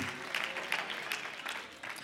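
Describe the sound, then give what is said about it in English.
An audience applauds for God: a dense wash of many hands clapping steadily at moderate volume for a couple of seconds, with scattered sharper claps standing out from the crowd. “Somebody give God a hand clap for that.”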